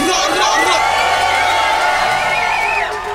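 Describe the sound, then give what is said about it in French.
A concert crowd in Paris cheers and whoops loudly and continuously for the performer's manager, with high-pitched shrieks and whistles rising above a dense wash of voices that holds steady throughout before easing slightly at the end. “Faites du bruit pour Disaster OG, mon manager sûr, faites du bruit pour lui, faites.”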